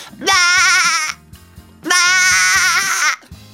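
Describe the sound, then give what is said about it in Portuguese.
A person imitates a goat with two loud, drawn-out bleats, each about a second long with a shaky, quavering tremble, separated by a short pause. “Quem é que quer ouvir agora uma cabrinha? Vamos fazer uma cabrinha.”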